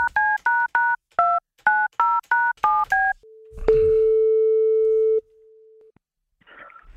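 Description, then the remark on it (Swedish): A quick run of about ten dual-pitch keypad tones beeps out a phone number for an outgoing call to a person, followed by a click and a long steady ringback tone, then a faint rustle. “Så ringer vi upp en person.”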